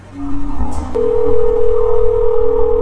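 A click, then a steady, unbroken telephone dial tone that hums on at an even pitch until the end, fairly loud over a low background rumble.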